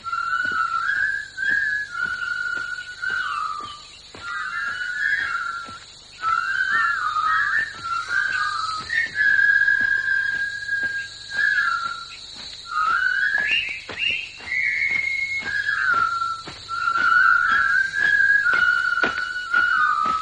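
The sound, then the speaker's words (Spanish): A film theme whistled clearly, its melody gliding through phrases for about twenty seconds over a steady high, insect-like buzz and faint rhythmic ticks. “Y ahora una banda sonora que ya silban, silbaban nuestros abuelos.”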